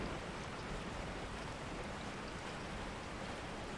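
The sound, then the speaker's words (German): A steady, even rush of ocean surf and wind in stormy weather, a dense hiss that holds at a constant level throughout with no distinct wave crashes or voices. “Die Geräusche der Brandung und des Windes umgeben dich wie eine vertraute Melodie und laden dich ein, dich vollkommen zu entspannen und dem Rhythmus der Natur zu lauschen.”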